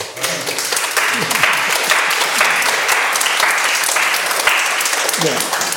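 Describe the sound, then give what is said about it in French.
An audience breaks into loud, sustained applause, many hands clapping in a dense, steady wash for several seconds, with a few voices mixed in underneath. “non on n'applaudit pas.”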